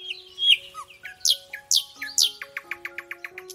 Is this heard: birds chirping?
yes